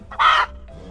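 A single short, loud chicken cluck or squawk rings out, followed by quiet farmyard background; no mooing can be made out.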